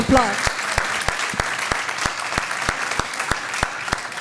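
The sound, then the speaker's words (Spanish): An audience bursts into loud, sustained applause, with sharp, steady claps ringing out about three times per second over the dense crowd clapping. A voice is heard briefly at the very start. “Entonces hablábamos, déle ese fuerte aplauso.”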